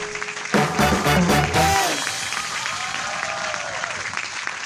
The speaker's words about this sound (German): Lassen wir den Applaus doch noch ein bisschen ausklingen. Ne? Ja, Den kann man ist ja so schön. Ne? Kann man ja genießen.